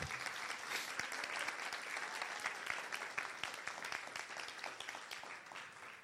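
An audience breaks into steady applause for Jesus and his love, a dense wash of many hands clapping at an even level throughout, with no voices standing out.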